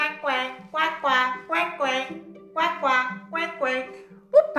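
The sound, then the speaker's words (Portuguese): A voice imitates a duck with a quick run of about nine nasal quacks in an even rhythm, clear over a faint steady hum. “Ficou observando aquele pato que fazia quacuá sem parar.”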